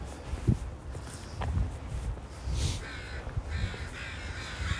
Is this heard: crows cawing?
yes